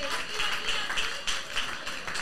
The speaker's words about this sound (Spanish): Un aplauso para que se anime, que veo que no se mueve nadie.